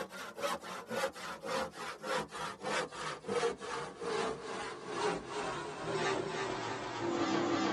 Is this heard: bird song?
no